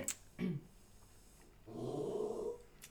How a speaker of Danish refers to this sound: Og kan være, der kommer lidt sådan ja. øh, underlige lyde indimellem. Det er ikke os, der har dårlig mave, det er øh, en hund, der også gerne vil være med.